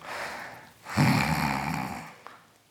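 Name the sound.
voice imitating snoring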